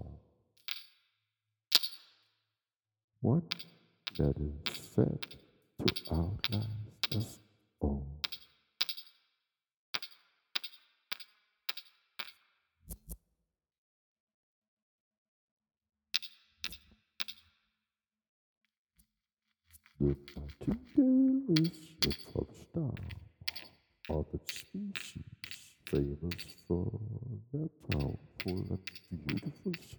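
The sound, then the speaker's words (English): A nightingale sings in loud, rapid phrases of sharp clicks, trills and whistles, separated by short pauses and one longer silence, before a denser, more continuous burst of song. “Famous for the powerful and beautiful song.”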